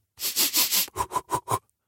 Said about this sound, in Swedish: Men Först flåsar jag